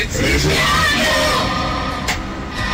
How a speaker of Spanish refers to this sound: Oye, los demonios gritando atrás.